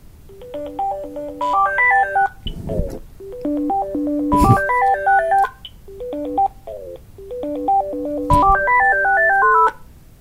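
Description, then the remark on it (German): A phone's melodic ringtone plays a repeating rising-and-falling electronic tune several times, fairly loud, with a few brief sharp knocks or clicks between phrases and no talking. “Telefon.”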